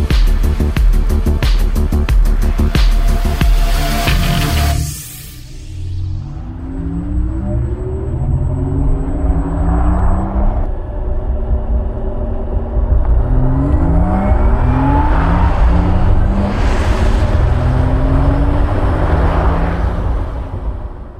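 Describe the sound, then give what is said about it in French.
A new Porsche Taycan GTS electric car drives and accelerates, its synthetic whirring hum sweeping upward in pitch again and again; this more expressive sound is exclusive to the GTS variant. Steady and loud throughout, with no voices. “Les sons que vous venez d'entendre proviennent de la nouvelle Porsche Taycan GTS et cette nouvelle sonorité plus expressive qui contribue grandement à l'agrément de conduite est exclusive à cette plus récente variante de la Taycan”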